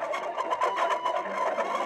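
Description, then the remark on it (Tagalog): A dense flock of a hundred chickens clucks and squawks all at once as they fly out of a clay pot, a busy, continuous chatter of overlapping calls with no pauses. “Bigla na lamang, may isang daang manok na lumilipad mula sa palayok.”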